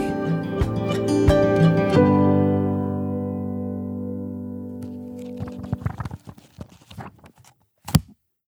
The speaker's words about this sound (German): Was ihr gerade gehört habt, waren die über 450 Seiten von Nikos neuem Buch Vegan Klischee AD.